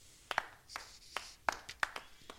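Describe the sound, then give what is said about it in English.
A short burst of hand clapping, given as applause for solving Wordle in one try: about eight or nine sharp, crisp claps in an uneven rhythm, fairly faint, with no voices over them. “Let me, let me give you your pop proper applause.”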